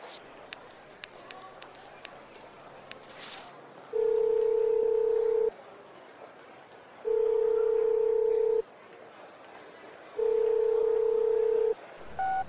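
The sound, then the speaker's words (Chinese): A few faint clicks of a telephone being dialed to call a boss and ask for leave, then a steady mid-pitched beep repeating three times, each lasting about a second and a half with similar pauses between. “那我打个电话给老板请假。”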